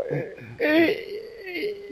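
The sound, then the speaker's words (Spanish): A man lets out a mock whimpering cry, a wavering, high-pitched voiced whine that swells loudly in the middle and trails off over about two seconds, imitating sobbing. “Eh, eh, estoy llorando, tío, pero bueno.”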